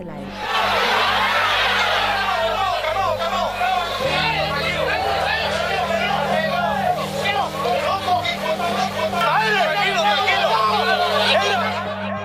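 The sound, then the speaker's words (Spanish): An agitated crowd at a political rally in Lomas Taurinas, a poor neighbourhood with dirt ground, shouts and yells over one another, trying to seize a man in a black jacket from the security team, a dense, continuous wall of overlapping voices at steady loudness for about twelve seconds, with a low droning hum underneath. “Así sonaban los gritos en los videos que existen de la época.”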